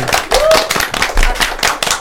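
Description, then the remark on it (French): A group of children applauding their teacher, with quick, dense clapping that stays loud for about two seconds and a brief high-pitched squeal near the start. “continuate on applaudit notre maître, allez, allez.”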